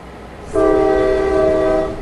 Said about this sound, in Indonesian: Peluit lokomotif berbunyi nyaring dan kereta kelas 1 berangkat.